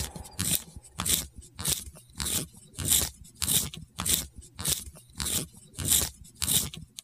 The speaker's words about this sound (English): If you said, that's a tiny alien chewing on Legos, then nope, that's not what that is. But if you said, that is a pencil being sharpened, then you are correct.